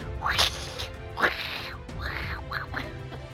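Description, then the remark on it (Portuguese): A voice mimics the buzzing of a mangangá beetle with a string of short, nasal, squawking bursts, loud, rising and falling unevenly over a few seconds. “Eu não sei como é que besouro faz, né? O barulho de besouro.”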